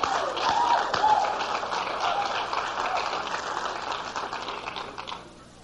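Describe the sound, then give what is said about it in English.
An audience claps in a dense, steady wash of many hands for about five seconds, fairly loud throughout, before the applause quickly thins out and fades away at the end. “That's what's clapping for, huh?”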